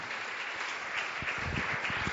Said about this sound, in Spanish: Den un fuerte aplauso al Señor.